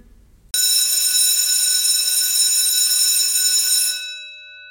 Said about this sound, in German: Und jetzt die Klingel.